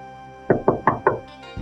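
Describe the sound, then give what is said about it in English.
Four firm knocks on the wooden door of a small house in a forest, in a steady, evenly spaced rhythm, clear, with no voices; no one answers. “She knocks on the door, but no one answers.”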